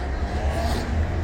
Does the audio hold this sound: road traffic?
yes